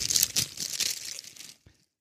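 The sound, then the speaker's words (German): A plastic bag holding a wrapped book crinkles and rustles as the book is unpacked, for about a second and a half, a dense crackly burst that stops abruptly, followed by one small rustle and then quiet. “Es ist ein Buch offensichtlich in einer Tüte.”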